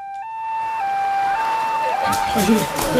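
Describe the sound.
An ambulance siren wails in steady, loud alternating tones as the ambulance arrives, lasting a few seconds before noisy bustle and muffled voices rise up underneath it.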